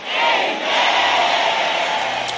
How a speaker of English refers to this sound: And everybody shouted a big amen. Shout your loudest amen.